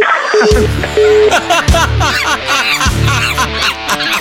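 A woman, a mother, sobs and wails loudly, her cries rising and breaking in uneven bursts over about four seconds, with a steady low hum underneath.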